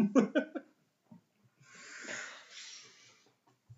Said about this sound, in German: Einatmen. Ausatmen. Einatmen. Ausatmen. Und jetzt alle. Einatmen.